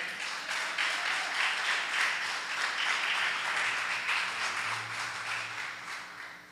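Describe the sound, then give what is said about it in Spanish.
An audience applauds steadily for 'the king', a dense wash of many hands clapping together at a sustained, fairly loud level for several seconds, with no speech over it. “Dile un aplauso al rey.”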